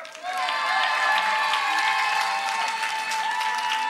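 A large audience claps and cheers loudly and continuously for young people from the Chevreuil foyer who are coming on stage to rap, a dense wash of applause with shouts and whoops rising above it, filling the whole stretch without pause.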